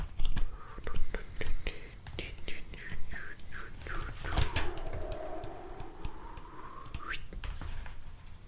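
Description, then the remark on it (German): Pages of the book 'Homöopathie verstehen und anwenden' by Dr. Said Mir (Homöosana Verlag) being flipped through for several seconds, a steady series of soft rustles and swishes with a final louder page turn near the end. “Wir blättern mal und schauen, was passiert.”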